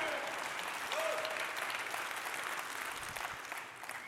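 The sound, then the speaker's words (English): A crowd applauds steadily during a praise break, giving praise to God, a dense wash of clapping that holds at an even level for several seconds, with faint cheers and a brief whoop rising above it. “Listen, if your fire is burning right now, can you just give God some praise? Let's just take a praise break.”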